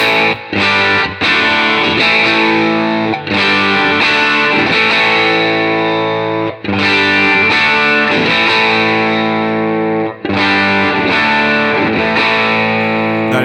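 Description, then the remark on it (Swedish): A distorted instrument plays a simple repeating chord pattern while its high-cut control is turned from 12 to 0 and to max, gradually dulling its bright, fizzy treble before the brightness returns. No one speaks. “jag tänker att vi testar eh, high-cutten först.”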